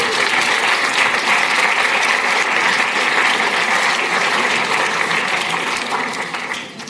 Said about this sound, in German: Herzlichen Applaus Wir wünschen euch von Herzen alles Gute und auf die nächsten 27 Jahre.